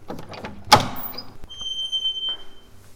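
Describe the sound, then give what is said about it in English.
A heavy trap door to the roof of a building, at the top of a spiral staircase, bangs open with a sharp, loud thud, followed by a faint creak and a thin scraping squeal of hinges fading away in a quiet space. “We passed through a large kitchen and into a narrow hallway which led to a set of stairs that spiraled up to a trap door to the roof of the building.”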